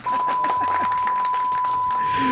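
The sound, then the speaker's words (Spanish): A steady, high-pitched censorship bleep holds unbroken for about two seconds, running over someone's muffled speech underneath and cutting off sharply at the end. “Censura, alarmas, suenan.”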